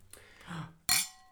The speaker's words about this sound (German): Hey, komm. Hast du recht. Lass uns anstoßen.